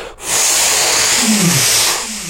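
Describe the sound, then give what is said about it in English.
A voice imitates the cutback the speaker made while surfing a wave: a loud, breathy rushing hiss lasting about two seconds, with a short low throaty swoop in the middle before it fades. “And then I did a cut back. And I don't know how good it looked, but it sure felt good. And that cut back sounded like this.”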